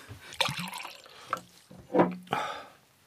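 A drink is poured with short splashy, gurgling bursts, then a few clear swallowing sounds as someone drinks it.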